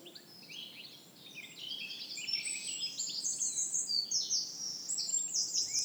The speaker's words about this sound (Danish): Du kender det helt sikkert, det her med, at du går en tur i skoven, og så stopper op et øjeblik, og så kan du høre fuglene synge ind mellem træerne